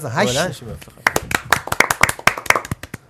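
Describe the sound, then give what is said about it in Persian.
A brief burst of speech gives way to a run of sharp hand claps, roughly a dozen in quick, slightly uneven rhythm, fairly loud and crisp, with a voice briefly overlapping at the start, clapping in honor of the player called the Asian Zidane. “واقعا بلند شدن ها یعنی ما افون پاشدن شدن ولی خب ما آرسنالی یه ذره خسته ایمان نشستیم دست آره.”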